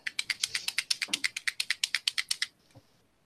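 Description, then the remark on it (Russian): A felt-tip marker is shaken, producing about eighteen quick, evenly spaced clicking rattles over two and a half seconds, then a soft single knock before quiet. “Это что за звук такой был у нас в эфире? Это я трясу э, фломастером.”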